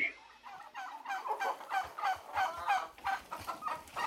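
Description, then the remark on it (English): A flock of turkeys on a turkey farm gobbling in rapid, overlapping bursts, a dense warbling chorus that rises and falls steadily throughout, fairly loud with no talking. “I woke up naked on a turkey farm again.”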